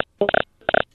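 Choppy audio of a caller's phone call that keeps cutting out, the caller's phone not working well: two short, muffled, tinny bursts of garbled voice broken by dead silence, then fading again.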